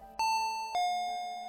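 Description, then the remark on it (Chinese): A home doorbell rings with a classic two-tone ding-dong: a higher chime followed by a lower one, each with a sharp onset and a long, ringing decay. No one speaks. “此时门铃响了”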